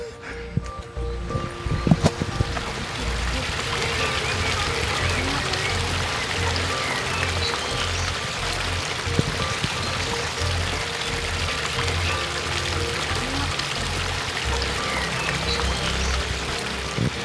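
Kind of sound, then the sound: nature, babbling brook flowing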